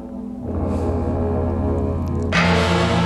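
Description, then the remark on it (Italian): Orchestral gongs and bells in the percussion finale of a Messiaen work ring out in a dense, sustained wash of overlapping tones, swelling after a moment, then a bright, loud metallic strike adds shimmer near the end. No voices. “Ecco, sentite questi, questi gong, queste campane, questi come sempre in Messien l'influenza del Giappone e della cultura orientale è molto forte”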